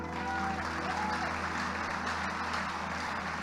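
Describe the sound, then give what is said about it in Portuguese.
A crowd claps steadily to applaud the women, a dense, continuous wash of many hands applauding at an even loudness throughout, with no voices standing out. “Vamos dar uma palmas para as mulheres.”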